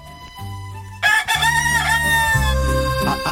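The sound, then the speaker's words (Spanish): A voice imitates a hen's cackle, bursting in loudly after a quiet first second and holding a strained, wavering squawk to the end, with a low steady hum beneath. “Pues mi padre en el año 65, que se fue a Francia, pues para comprar huevos tenía que hacer el cacareo de la gallina, porque no lo entendía, ni él sabía francés ni nada.”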